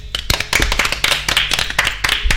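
A short burst of hands clapping, brisk and fairly close, several people applauding together in a quick, uneven patter for a couple of seconds with no voices.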